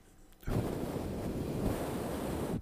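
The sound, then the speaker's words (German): A voice imitates the steady rushing whoosh of a studio air conditioner's draft, a loud breathy hiss lasting about two seconds that starts and stops abruptly. “In dem Studio, wo wir gestern das übertragen haben, da ist ja eine Klimaanlage.”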